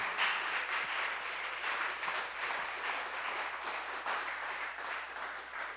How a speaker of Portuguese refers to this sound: Fique de pé no seu lugar e vamos aplaudir o Senhor.